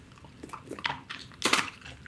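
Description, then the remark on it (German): A dog chews a treat, with a few irregular crunchy bites and a louder crunch near the end over soft background noise. Nobody speaks. “Tiervideos, dann muss ich die mit Ton gucken, weil ich dieses Kauen bei Tieren einfach so süß finde.”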